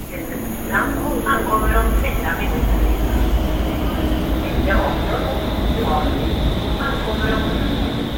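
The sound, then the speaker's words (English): A Stockholm subway train rumbles steadily and loudly throughout, with a deep low roar and faint high-pitched wheel squeals rising and fading over it, while muffled voices murmur in the background. “I can still skirt around the subway system without looking at a map.”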